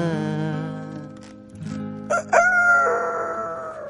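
A loud rooster crow, apparently a person imitating it: a long, strained cock-a-doodle-doo with a sharp rise and a drawn-out wavering tail, following a sustained low vocal tone.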